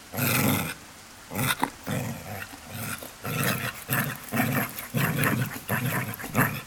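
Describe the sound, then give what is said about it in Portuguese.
A pet dog barks and growls at something it has spotted, in a rapid series of rough, loud bursts, the snarling sounds repeating almost continuously with only brief pauses, and no voices. “Às vezes eu olho porque o meu cachorro aponta algo e late, né,”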